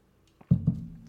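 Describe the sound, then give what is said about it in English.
Quiet drinking sounds as a person takes a sip of water: a faint slurp followed by two soft, low gulps in quick succession, with no talking. “You get to drink water. Who, who doesn't love it? I'm gonna take a sip.”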